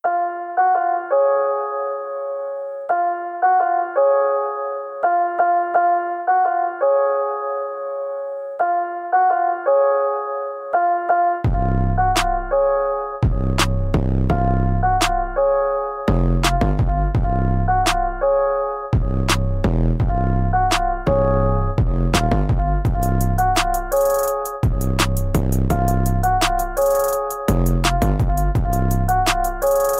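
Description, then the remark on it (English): A short electronic intercom chime, the one heard in the video game whenever Joker speaks over the intercom, loops on its own for about ten seconds, then heavy bass and punchy drums come in underneath, turning the repeated chime into a loud, steady beat. “In fact, the one that Jarrod shared with me was the only one that I could really find where they used the the chime from whenever Joker was speaking over the intercom, the and they just repeated that and made a really dope beat with that.”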